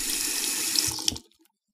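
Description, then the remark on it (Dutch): Water gushes steadily from a tap for about a second, a dense hissing splash, then stops abruptly and leaves near silence with a couple of faint drips. “Geen water meer uit de kraan.”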